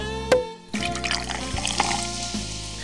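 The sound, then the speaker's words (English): Liquid pours steadily into a glass for a few seconds, a continuous trickling and gurgling fill after a brief sharp clink at the start. “Thanks for the drink, Reggie.”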